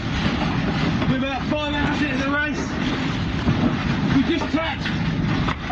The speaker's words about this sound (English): and uh, quite a lot of wind. I don't know how much wind, but the boat just keeps falling over. We're down to uh, two rigs in the main, fully ballasted up with all the kit, getting the hell knocked out of us.